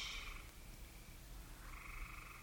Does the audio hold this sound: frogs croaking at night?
yes